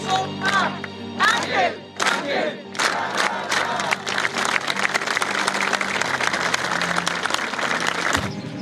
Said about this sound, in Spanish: Este jueves a las 9 de la mañana hubo un minuto de silencio, consignas, porras y aplausos.